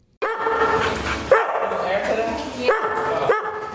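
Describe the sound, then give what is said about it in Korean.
Several dogs bark and yip in sharp, repeated bursts, fairly loud, with a busy background of overlapping canine noise between the outbursts, at the Old Town Pet Resort, a dog hotel in Springfield, Virginia, USA. “하지만 올드타운 펫 리조트라는 간판이 말해주듯 이곳은 반려견들을 위한 휴양시설입니다.”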